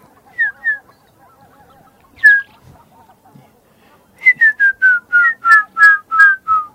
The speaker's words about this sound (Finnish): Mä oon tänä vuonna kuullut ainakin käpytikan, palokärjen, no harmaapäätikan rummutusta en ole kuullut, mutta sen perinteisen äänen kyllä.